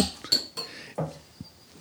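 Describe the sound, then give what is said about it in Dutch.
Glasses clink together in a toast in Amsterdam: a bright, ringing clink followed by a few softer knocks and taps spread over a couple of seconds, fairly quiet, with no talking. “Proost. Cheers.”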